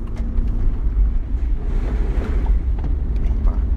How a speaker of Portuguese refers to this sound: Yeah, vou passar aqui por um charco. Vou abrir um bocadinho o vidro, só para curtirmos mais o som. Tem charco, tem. Boa.